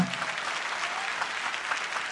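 An audience claps steadily for a woman being introduced, a dense wash of overlapping hand claps at moderate volume that keeps going without a break for a couple of seconds.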